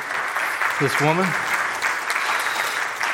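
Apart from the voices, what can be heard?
audience applause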